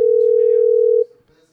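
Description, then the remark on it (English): A telephone busy signal heard when calling Hanks: one loud, steady electronic tone holds for about a second, then cuts off abruptly, leaving faint background noise. “They're, Bus- they're busy.”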